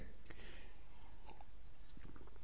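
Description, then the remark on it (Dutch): Quiet mouth sounds of someone taking a sip of water: soft wet slurping clicks and a gulp, with a few brief transients over a low hum, no speech. “Even een slokje water, sorry.”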